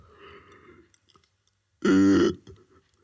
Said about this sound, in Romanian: Asta nu a fost un căscat dublu, a fost um, căscatul ăla când ai nevoie să umpli o anum- anumită cavitate din sinusurile tale cu aer mm-hmm. și tragi așa într-un pic într-o într-o direcție, știi?